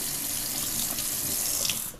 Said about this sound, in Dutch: Ik laat de kraan even lopen, want het water is niet meteen heet.